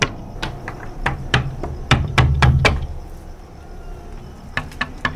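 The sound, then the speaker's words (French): Firm knocking on temple doors, a quick series of sharp raps over the first three seconds, a short pause, then a few more knocks near the end. No voices. “Et on a le devoir, quand on a été initié dans un temple, pareil, de frapper à toutes les portes pour dire aux esprits qu'on est là, qu'on est venu leur rendre visite.”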